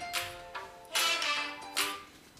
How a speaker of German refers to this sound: Ähm, oh, mein Telefon klingelt.